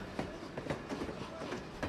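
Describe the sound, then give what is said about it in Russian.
A Saint Petersburg metro train rumbles steadily along the rails as it arrives at a station, with a rhythmic clickety-clack of wheels over track joints coming through every fraction of a second, loud. “Поезд прибыл на станцию «Подкаст».”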